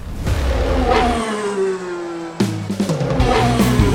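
A car engine revs loudly, its pitch climbing and holding before cutting off, then a second burst of sharp revs follows with no talking.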